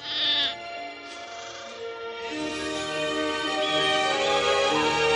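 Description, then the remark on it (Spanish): A sheep bleats in a long, wavering, nasal cry that holds steady and grows slightly louder toward the end, with no voices present. “Moisés sale de la cueva con la oveja.”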